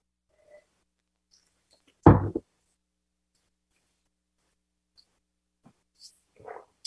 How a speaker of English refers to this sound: What I'm doing for folks who can't see me, is I'm literally breathing air through the, the wine with my head tilted slightly forward and my lips closed so I don't lose any wine out of my palate.